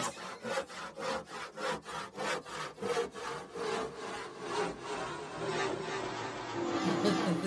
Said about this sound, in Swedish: Ska jag ta fram sågen igen?